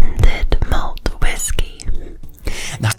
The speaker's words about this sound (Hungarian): Hát gyerekek, az egyik legérdekesebb ASMR videó vagy hang, amikor sutyorognak a mikrofonba, és még a nyálnak a csattogását is hallod. Figyelj!